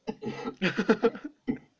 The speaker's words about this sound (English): Yeah. It turned into a real cough.